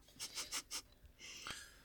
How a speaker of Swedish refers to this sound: Uh, nu prasslar jag med lite papper här.